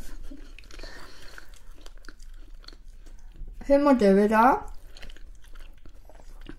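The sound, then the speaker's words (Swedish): Wet mouth smacking as someone eats peanut butter, with sticky clicks scattered irregularly throughout and a short spoken phrase breaking in midway. “Ni får ursäkta smasket här i början.”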